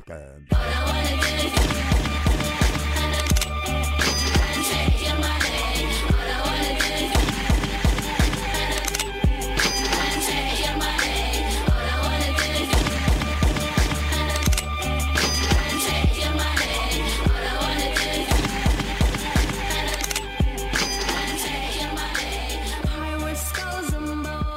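A hit rap song plays loud and continuous for about twenty-five seconds, driven by a steady, punchy beat under dense layered production, with no pauses or talk over it.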